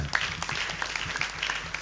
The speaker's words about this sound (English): So, ladies and gentlemen, please, Judge One, a round of applause for her.